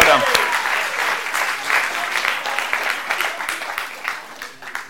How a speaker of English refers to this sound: Okay, and we'll stop there. Give them both a round of applause.